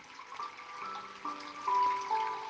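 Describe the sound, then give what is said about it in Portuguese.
Steady flowing stream water rushes and trickles continuously, with soft sustained musical tones layered over it. The water is fairly quiet, and there is no talking. “Sinta o barulho da água.”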